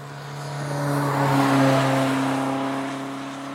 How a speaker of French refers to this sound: Un exemple pour bien comprendre. Ça, c'est le passage d'une voiture en mono.